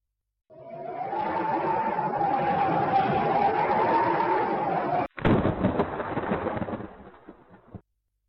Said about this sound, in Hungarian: Az apró esőcsepek egyre kövérebbekké váltak. A fák némileg felfogták a viharos szelet és a csapadékot, de azért még így is kapott belőle rendesen a két boszorka.